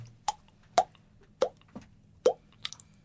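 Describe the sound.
A voice imitates a dripping waterfall with a series of wet mouth plops, about five distinct pops spaced unevenly, clear, with a couple of quicker smaller ones at the end.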